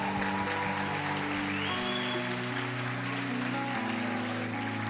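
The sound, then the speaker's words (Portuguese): A church audience claps for the Lord steadily for several seconds, a dense, continuous wash of applause, while sustained keyboard chords hold underneath and shift a couple of times. “Aplauda o Senhor!”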